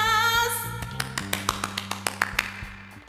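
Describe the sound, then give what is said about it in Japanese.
A quick run of about a dozen sharp hand claps with an added echo effect, each trailing off into a reverberant echo, following a fading, ringing tone at the start; the clapping celebrates the announced production of the film "Tokyo Revengers 2". “拍手までエコー入れてしまった”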